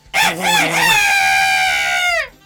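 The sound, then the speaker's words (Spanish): A person imitates a chicken with one loud, drawn-out squawking call, wavering at first and then holding steady for about two seconds before cutting off. “escucha, yo te puedo invitar una gallina.”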